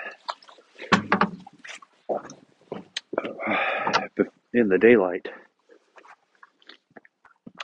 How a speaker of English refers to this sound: and now I'm feeding the pigs, and it's it's almost seven o'clock.